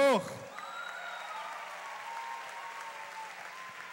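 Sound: audience applauding loudly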